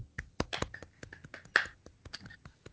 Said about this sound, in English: So again, golf clap.